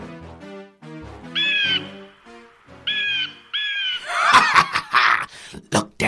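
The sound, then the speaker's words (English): A hawk flying by cries out three times in sharp, shrill screeches, followed by a burst of rough, breathy rustling noises. “Then a hawk flies by.”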